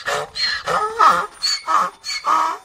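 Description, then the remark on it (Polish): A real donkey brays loudly, a rhythmic run of harsh hee-haw bursts alternating between wheezy inhaled notes and rough, honking exhales, with no talking. “Tak robi prawdziwy osioł.”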